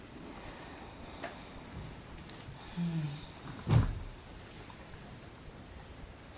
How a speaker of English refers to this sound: Rain. We got rain. Mm-hmm. yeah, it's a good thing.